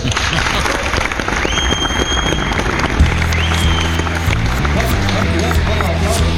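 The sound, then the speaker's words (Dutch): Steady, dense applause, a standing ovation in the studio of the Breda show Nakpraat welcoming back a guest, fills the whole stretch, with a sustained low tonal sound, like voices or music, rising underneath partway through. “Nou, nou, wat een applaus.”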